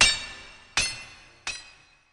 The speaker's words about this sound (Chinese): 敲敲打打的动静又响了一会儿之后，终于停止了。